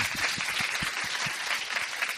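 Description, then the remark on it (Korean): An audience bursts into steady applause, a dense wash of many hands clapping at once, sustained and fairly loud throughout with no voices standing out. “박수 한번 부탁드릴게요.”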